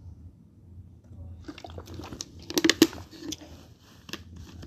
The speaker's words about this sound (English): let me take a sip of water